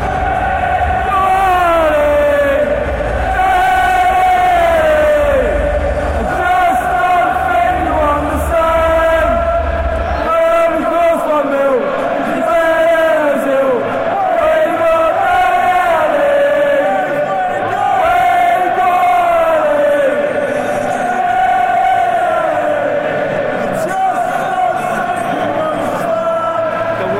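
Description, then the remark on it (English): A loud Tottenham home football crowd roars and chants in unison for nearly half a minute, a massed, wavering wall of voices that swells and falls while echoing around the enclosed stadium. “that noise reverberates in the stadium.”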